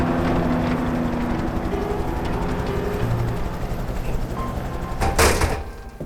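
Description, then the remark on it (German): Steady, heavy rumble of machinery like a helicopter running, with a brief clattering burst near the end over the constant outdoor din of a barbed-wire-fenced military base with vehicle pools, helicopter landing pads and tin containers, in the morning. “Erst am nächsten Morgen erreichten wir Camp North, einen stacheldrahtumzäunten Militärstützpunkt aus Fuhrparks, Hubschrauberlandeplätzen und Blechcontainern.”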